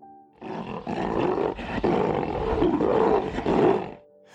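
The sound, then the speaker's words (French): A lion lets out a long, loud roar lasting several seconds, deep and rumbling with a rough, growling texture, alone with no talking, calling all the animals of the forest. “Il se mit à rugir à l'appel de tous les animaux de la forêt.”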